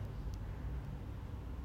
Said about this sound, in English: Sorry, guys, if you hear cars outside my window. I'm in, in New York, so.